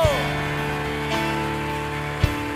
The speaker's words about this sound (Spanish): Amén y amén. Dele fuerte ese aplauso.